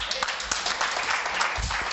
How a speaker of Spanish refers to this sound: Por eso a estas mujeres que participaron, denles un fuerte aplauso